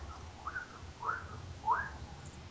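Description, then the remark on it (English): A bird chirps three times, short rising notes spaced about half a second apart, moderately quiet against a low indoor rumble, with no one talking. “Look, dude, there's a bird in here.”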